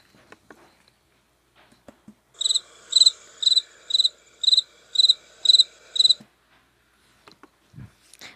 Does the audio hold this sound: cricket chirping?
yes